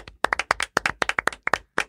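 A small group of hosts clap their hands in a studio in a quick, uneven burst of sharp slaps, lasting about two seconds with no talking.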